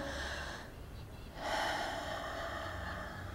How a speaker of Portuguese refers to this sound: respiro lentamente, profundamente.